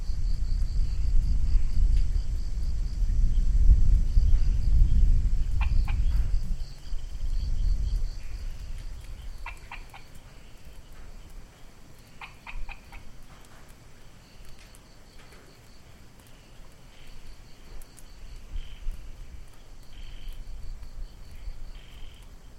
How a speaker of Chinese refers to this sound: 你听得到有一点滴滴答答的声音，那是小雨滴，就滴在那个石头地板上，不是水泥哦，是石头地板上，所以这样哒哒哒哒哒哒，好，然后远处有一个咕咕，那个是那个牛蛙，哎，应该是牛蛙的，然后旁边就一两只虫的声音